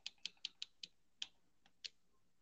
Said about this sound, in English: you were hearing me hit the D-pad